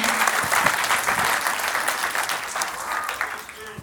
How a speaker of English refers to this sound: So if you guys uh, would clap and welcome